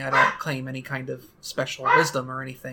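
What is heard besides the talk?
dog barking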